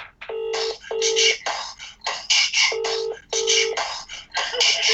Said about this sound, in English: So, this is a real toy shop. They're in Bury St. Edmunds. Let's phone them now.